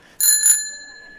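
A bicycle bell rings twice in quick succession, close and clear, its bright metallic tone lingering and slowly fading afterward with no voices.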